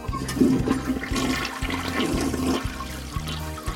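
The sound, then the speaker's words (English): A toilet flushes with a loud, rushing whoosh of water that swirls and gurgles steadily for several seconds, with no voices. “To my mind, it's like the whoosh of the toilet as you flush is almost serves as a mind eraser.”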